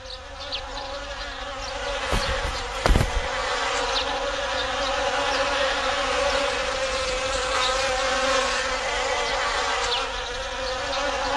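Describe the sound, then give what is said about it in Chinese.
A steady, dense hum of many bees buzzing continuously, with a brief louder rustling burst near the start; no voices are heard. “哎，大人，蜜蜂！”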